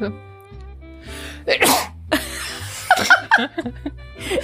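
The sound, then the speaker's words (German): A woman sneezes on command: a single forced sneeze bursts out just beside the mic with a sharp, breathy blast, followed by scattered chuckles and light laughter. “Ich kann auf Kommando niesen.”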